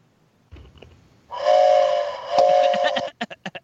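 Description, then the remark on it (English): A loud, drawn-out train whistle wails for nearly two seconds with a brief dip in the middle, then four quick, short bursts close it out. There is no talking. “give me a really sad whistle blow.”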